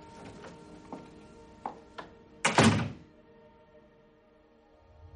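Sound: door being closed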